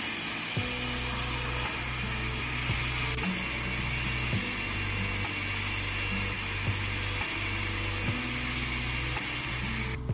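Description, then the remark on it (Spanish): A blender runs steadily for about ten seconds, a loud whirring motor hum with shifting low tones as it purees onion, cumin, salt and pepper with a little water into a paste to add to meat. No one speaks. “y lo que vamos a hacer es licuar lo que ya les comenté anteriormente para agregarlo a la carne y al pigo, mezclarlo muy bien y dejarlo reposar mientras nos vamos a preparar”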